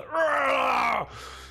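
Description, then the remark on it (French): A man's voice imitates the pained scream of a character whose leather armour is pierced by a sword, one loud, drawn-out cry of about a second that sags and drops in pitch at the end, followed by quiet. “Euh, l'épée, l'épée transperce Joson, enfin une partie du cuir que porte Joson et vous l'entendez hurler.”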